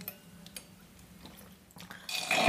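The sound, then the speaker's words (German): Near silence, then an airy slurp of lemon water drawn through a straw, building into a louder gurgling suck over the last half second. “Trinke ich mal aus meinem Weinschorle mein Wasser mit Zitrone.”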